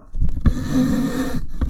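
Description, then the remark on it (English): A slowly falling microphone stand being adjusted: rumbling handling noise, a few dull knocks, and a steady scraping drag in between, with no talking. “I have to adjust my mic.”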